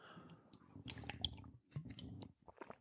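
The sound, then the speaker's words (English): Quiet mouth sounds of someone drinking water: two wet gulping swallows in a row, followed by a few small lip smacks and clicks, with no talking. “Excuse me, drinking water.”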